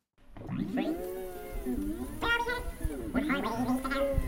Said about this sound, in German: das typische Geräusch, wenn man jetzt einen bestimmten, zum Beispiel ein Ä oder einen Versprecher sucht, am Tonkopf dieses Hin und Her